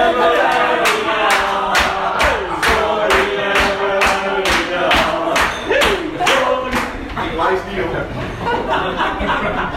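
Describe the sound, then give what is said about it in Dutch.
An audience at a stand-up comedy show claps in a steady, rhythmic beat while many voices cheer and shout together, loud throughout, the clapping slightly loosening toward the end. “nou jullie onthouden dat ik indirect uh, verantwoordelijk ben voor dat applaus.”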